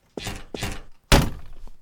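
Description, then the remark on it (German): Door sounds: two matching dull thunks in quick succession, then a louder, heavier thud that rings out briefly, like a door being worked and shut. No one speaks. “So, und jetzt ist die Tür da. Wir hören sie schon”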